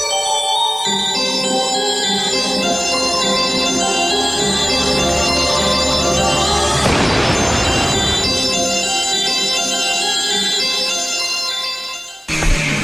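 A loud punk rock song plays steadily with dense, sustained chords and a noisy crash midway, then cuts off abruptly near the end. No one speaks.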